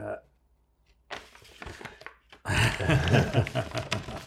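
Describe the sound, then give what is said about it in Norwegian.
Tape on a package, taped three times over, being ripped open, a few short crinkly tears followed by a louder, sustained stretch of tearing and rustling. “For denne her var ikke teipa bare to ganger, den var teipa tre.”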